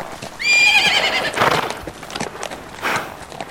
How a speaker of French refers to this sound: on dirait des chevaux qui viennent vers nous